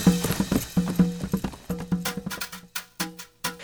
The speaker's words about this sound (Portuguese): E então, já quase escurecendo, bem na hora em que estava chegando ao casebre de Baba Yaga, um cavaleiro vestido de preto passou trotando em seu cavalo preto e entrou direto no casebre, bem diante dos olhos de Maria.